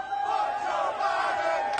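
crowd chanting

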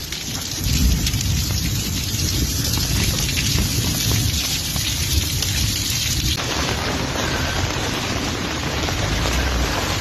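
heavy rain with thunder

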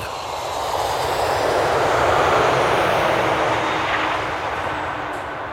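airplane engine taking off

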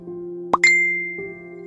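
phone message notification chime

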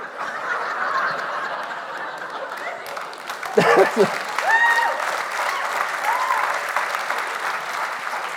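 audience applause

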